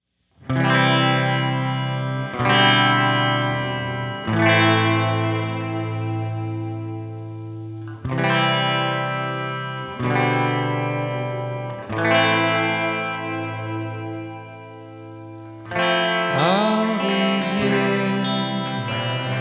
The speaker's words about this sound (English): I made the sound of the guitars pretty twangy and turned up the reverb on the vocals